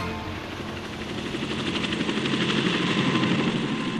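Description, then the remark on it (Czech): A helicopter's rotor thumps in a rapid steady rhythm over a droning engine, loud, holding constant throughout with no voices. “Ke kolmým startům bez pochyby patří i vrtulníky nebo chcete-li helikoptéry, stroje, které létají na principu rotujícího křídla.”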